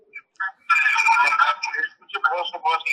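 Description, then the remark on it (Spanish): An engineer's voice comes through a phone call line in Spanish, thin and tinny, with an echo doubling the speech in fairly loud bursts over about three seconds. “De donde está viendo el programa, eh, eh, ingeniero, se oye el eco.”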